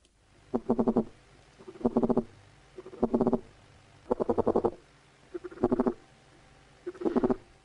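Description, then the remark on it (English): Caterpillar calls mimicking an ant queen: six short, buzzy pulsed bursts, each a rapid train of clicks, repeating at steady intervals about a second apart, clear with no talking. “Let me just play you the, the caterpillar by comparison.”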